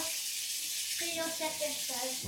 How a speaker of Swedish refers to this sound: Nu ska vi ta lite vatten här bara.